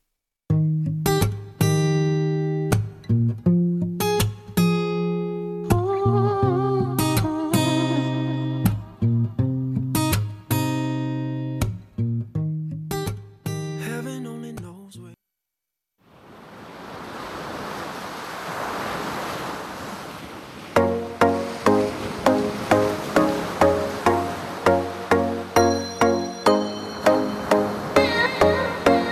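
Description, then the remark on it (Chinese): A song plays with bright, steady melodic notes in a punchy rhythm, breaks into a brief whooshing swell like rushing surf, then returns with a pulsing, repeated beat. No one talks over it. “在正式进入栏目之前，送上一首歌曲”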